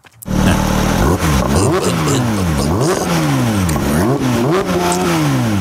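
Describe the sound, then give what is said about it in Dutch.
The engine of a new Porsche 911 GT3 being test-driven revs hard, its pitch sweeping up and down in repeated loud climbs and drops as it accelerates through the gears, with no voices over it. “Als eh, we dan meer getallen gaan noemen, want we rijden in de 911 GT3.”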